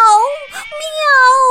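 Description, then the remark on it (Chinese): A voice mimics the pained yowl of the cat Mimi after it is kicked by a female shop owner, a high, wavering, drawn-out cry in two loud stretches separated by a brief rough break, sounding plaintive and whiny. “咪咪疼的在惨叫， 喵”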